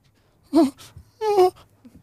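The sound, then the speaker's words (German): Two soft, drawn-out whimpers, each a wavering tonal cry lasting a fraction of a second, separated by a short pause against a faint low hum. “Du hörst ein ganz leises Wimmern.”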